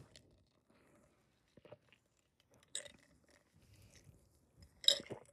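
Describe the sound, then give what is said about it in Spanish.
Someone takes a long sip of coffee: quiet wet mouth sounds and swallows, broken by two louder slurping bursts, with no talking. “espera, déjame, me tomo mi café antes de comenzar porque si no empiezo a hablar y se me seca la garganta y ya valió.”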